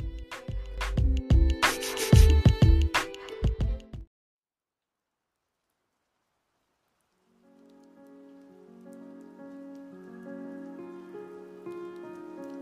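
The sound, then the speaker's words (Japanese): Loud rain pattering heavily on a hard surface with dense drips and splashes, cutting off abruptly after a few seconds; a silence follows, then soft sustained music fades in. “雨音すら愛おしく癒されて心清めて幸せを感じてほらさーっと優しい声ほらぽちゃっとかわいい声”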